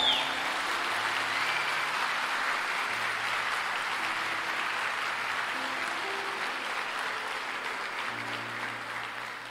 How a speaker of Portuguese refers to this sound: Ei, aplaude Jesus aí!